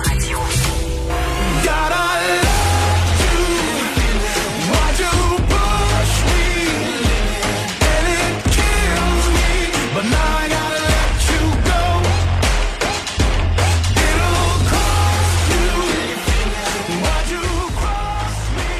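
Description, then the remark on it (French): A pop song plays loud and steady throughout, with a full band sound, thumping bass and bright layered melody, and no talking over it. It is the artist's very first single, released last April. “ce que vous entendez, c'est un extrait …”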